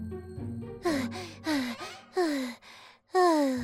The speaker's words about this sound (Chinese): 小鸡墩墩拍着自己的胸口，大声的喘气。